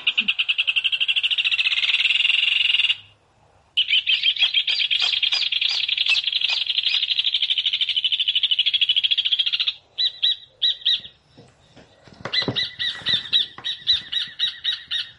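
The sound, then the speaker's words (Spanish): A rufous hornero calls loudly in long, rapid, ringing chattering series, pausing briefly before resuming, then breaking into choppier bursts near the end. No voices. “Estamos escuchando al hornerito, el hornero.”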